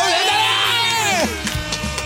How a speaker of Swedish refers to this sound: vad vi är värda en applåd och tuta. Det tycker jag definitivt att vi är, så här kommer den. applåd!